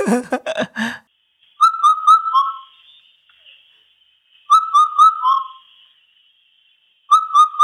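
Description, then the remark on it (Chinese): An Indian cuckoo's four-note whistled call repeats three times at a steady, unhurried pace, each phrase clear and mellow, dipping slightly in pitch at its end. A brief voice is heard at the very start. “它的答案揭晓，它的名字就叫四声杜鹃”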